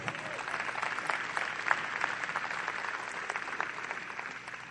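An audience claps steadily for several seconds, a dense, even wash of many hands with a few sharper claps standing out, moderately loud and without voices.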